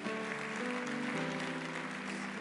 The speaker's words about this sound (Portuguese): Essa é a hora que você diz glória a Deus, aplaude o Senhor e fala: Eu, amém.